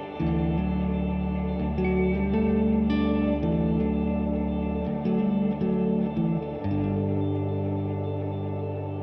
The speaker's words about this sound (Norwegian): Vi skal jo høre en eh, lita låt fra deg, da.